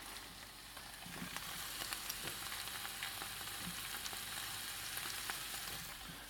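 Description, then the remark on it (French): Poached, drained chard stems and leaves cut into large pieces sizzle with caramelized shallots in a frying pan over high heat: a steady, bright hiss with scattered small crackles and pops throughout, fairly soft and even, with no voices. “une fois que les échalotes ont bien caramélisé, on rajoute euh, dans la poêle les côtes qu'on avait pochées et égouttées et les feuilles coupées en gros morceaux ou même carrément entières à feu vif pendant 2-3 minutes.”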